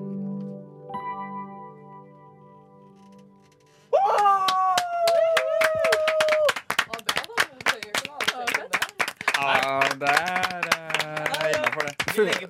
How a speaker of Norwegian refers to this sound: liten applaus.